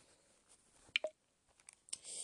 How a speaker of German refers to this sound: ich glaube, ihr habt gerade so ein Klicken gehört, so ein oder so ähnlich. Äh, ja, da habe ich gerade mein Handy ausgemacht, weil sonst verbraucht es viel zu viel, zu viel Bildschirmzeit.